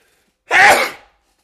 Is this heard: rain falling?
no